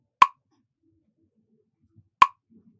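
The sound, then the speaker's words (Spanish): Two crisp metronome ticks sound about two seconds apart, each a short, sharp wooden click in otherwise quiet surroundings, with no one speaking. The metronome gives the beat for repeating syllables in an exercise. “Enfócate bien en el sonido del metrónomo.”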